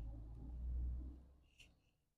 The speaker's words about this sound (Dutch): En ehm, ik moet eventjes ruimte maken voor een auto. Ik sta natuurlijk weer eens in de file.